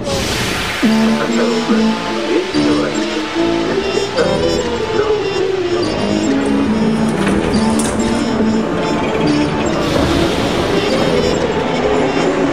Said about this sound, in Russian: Метро – главная тема Красноярска. Это действительно метро.